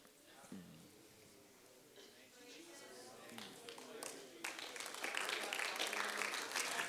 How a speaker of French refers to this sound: thank you, but I was not looking for a hand clap right there.